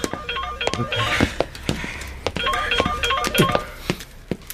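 Short electronic phone tones beep in quick bursts, like keys being dialed before a call, scattered among sharp clicks over a steady background hiss. No one speaks.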